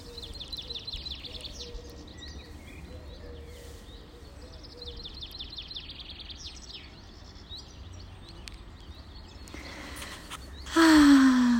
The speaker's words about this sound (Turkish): Ama önce ben bir susayım. Kuşlar seslensin sana.